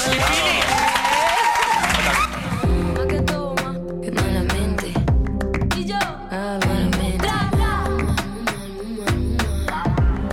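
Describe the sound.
A loud burst of audience applause, dense and continuous, fills the first couple of seconds before it gives way to music with a voice and sharp rhythmic hits.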